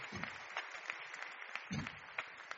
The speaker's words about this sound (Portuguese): Então, uma salva de palmas para esse casal maravilhoso.